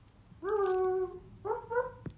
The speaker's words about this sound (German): Okay, ist, ist ein Hund